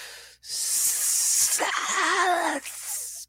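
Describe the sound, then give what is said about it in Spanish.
Snakes hiss loudly and steadily for about two seconds, joined midway by a warbling, rasping tone, then cut off abruptly, leaving a softer trailing hiss. “Convertidos en serpientes.”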